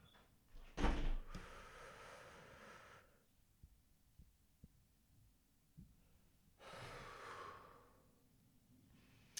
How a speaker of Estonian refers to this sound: kusjuures väga oluline on vahepeal hingata ikkagi nagu päriselt hingata sisse-välja, seda ei tohi väga palju teha, aga niimoodi natukene ja kõhtu mitte siia üles kopsudesse, vaid. see väljahingamine tegelikult peaks olema tegelikult veel sügavam